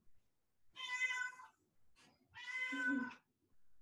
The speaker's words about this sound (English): Oh my gosh. Here's my cat. Come here, baby.